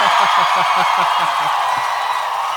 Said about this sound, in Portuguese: Aplausos mais uma vez para ele. Ô Nassif, você consegue ouvir a galera te gritando?